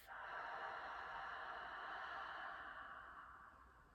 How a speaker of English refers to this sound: So you can try this with me. you breathing in, breathe in through the nose and then exhale with an open mouth. Imagine you're fogging up a window. So breathe in. Breathe out.